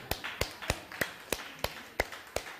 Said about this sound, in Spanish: Usted, déle un aplauso a la, hermana.